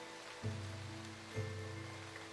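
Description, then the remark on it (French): Steady heavy rain of large drops falls at night, pattering in a soft, even hiss, broken by two dull low thumps about a second apart, with a faint low hum underneath and no voices. “Il pleut toujours, de grosses gouttes noires qui ont absorbé la nuit.”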